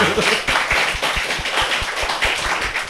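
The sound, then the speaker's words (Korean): Steady, rhythmic hand clapping, roughly a dozen sharp claps at an even quick pace, fairly loud over a bed of background noise with faint voices. “아, 박수 좀 쳐야 되지 않 예, 예.”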